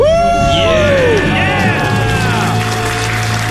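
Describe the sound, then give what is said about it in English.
Loud celebratory 'debt-free' screaming from a couple who paid off their debts, including their house, on The Ramsey Show; high sustained shrieks and whoops that rise and fall for a few seconds, excited. “Let's hear a debt-free scream.”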